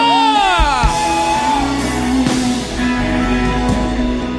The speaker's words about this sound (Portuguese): Não, eu acho que está fraco, tem que estremecer esse lugar. Quantos foram abençoados, dê um grito de júbilo!